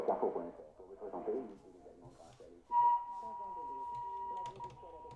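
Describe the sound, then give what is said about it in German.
A Sony shortwave radio receiver switched to AM picks up garbled broadcast sound, then a steady, piercing interference whistle suddenly cuts in and holds its pitch over the muffled audio until the end. “Und nachts ist es ganz, ganz viel, tagsüber ist es ein bisschen wenig, aber auch der Sony pfeift.”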